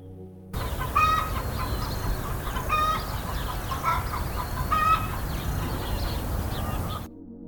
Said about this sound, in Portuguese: Escute o canto dos pássaros.